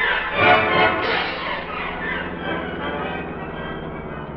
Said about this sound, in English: That's a plane motor, Kato. The motor of a plane that's about ready to take off.